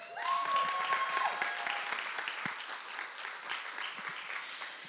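An audience at a Father's Day church service claps steadily for about five seconds for a woman arriving to give the sermon, a dense, sustained round of applause that tapers slightly toward the end.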